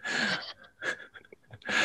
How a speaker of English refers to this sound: She's gasping in surprise and delight.